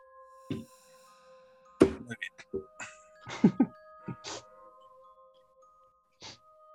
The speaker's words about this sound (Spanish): Las campanas fúnebres de la abadía lupulera tocan por Joshua.